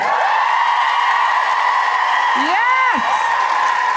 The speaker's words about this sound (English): Now, I know you've just clapped, but can I have you cheer and roar again for the trans community? Yes!